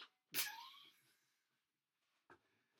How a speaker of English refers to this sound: And I just intentionally knocked the table. I just realized after. Yeah we get made fun of for hitting the table on accident with our feet.